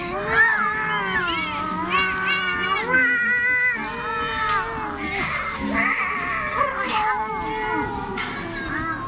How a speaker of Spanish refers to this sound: La verdad es que había mucho que escuchar pues al otro lado de la puerta cerrada y al pie de las escaleras de piedra se desarrollaba una verdadera pesadilla de maullidos y arañazos felinos.